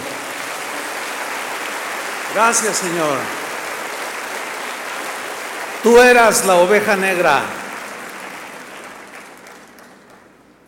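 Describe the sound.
A crowd of Christians packing the place claps steadily for God in a dense, sustained wash of applause, with a man's voice speaking over it twice before the clapping tapers off and fades out near the end.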